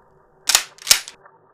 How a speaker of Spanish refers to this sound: Se escuchó mucho alboroto afuera de la casa y un disparo.